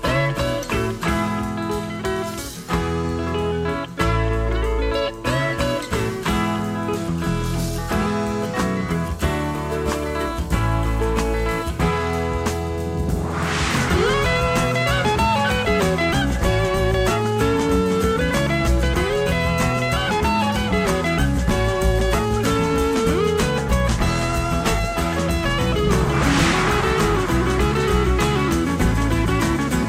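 A southern rock song plays with steady drums, bass and bright electric guitars, melodic lead guitar lines weaving through warm harmonies at a consistent, full loudness throughout.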